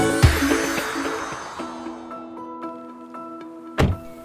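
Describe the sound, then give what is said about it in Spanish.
A car door shuts with a solid, low thunk near the start as a girl gets out of her mother's car, and a second heavy thump lands near the end, while soft sustained musical tones ring quietly in between. “Sophie se baja del carro de su mamá.”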